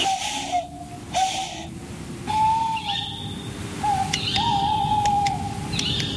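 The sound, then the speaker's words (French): A tawny owl hoots several times at night in the Kéroumen woods, its wavering calls drawn out and fairly clear against a constant background hiss. “Après, on a aussi entendu ce soir on a fait un très bel enregistrement dans le bois de Kéroumen d'une chouette hulotte.”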